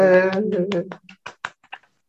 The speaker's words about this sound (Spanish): Aplausos.